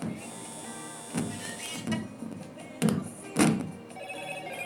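A telephone rings steadily with a bright, insistent electronic tone, joined by a few louder thumps and bursts at irregular moments. No one speaks.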